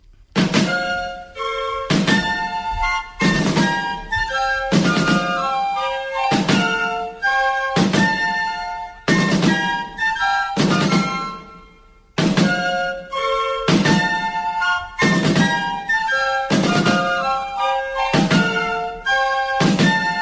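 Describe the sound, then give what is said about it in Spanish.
A Spanish military march, strongly associated with the Spanish army, plays loudly, with sustained brass-like melody over steady, heavy drum beats in a regular marching rhythm. The music briefly drops near the middle, then continues. No one speaks. “es una melodía militar muy clara que está muy asociada al ejército español y a, la, a, todo lo que fue pues, mm, mm, las aventuras y las andanzas de, de nuestros militares.”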